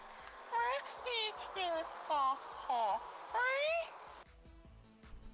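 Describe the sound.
A voice, sent as a WhatsApp audio, imitates the comic fainting fit ('piripaque') of Chaves: six quick, warbling falsetto cries with wobbling, sliding pitch, delivered in a rapid rhythmic burst, then trailing into faint background noise.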